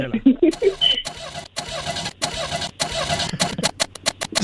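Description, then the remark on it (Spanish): A voice mimics a broken-down car's engine failing to start in a closed garage, with repeated sputtering cranks that rise and cut out in bursts, fairly loud, never catching into a steady idle. “Y, entonces vamos a, aquí a dramatizar cuando el carro no encendía porque estaba descompuesto, ¿eh?”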